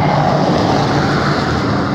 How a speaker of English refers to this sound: I should consider that. I should consider whether that's just some mad truck driver repeatedly driving down the street and back.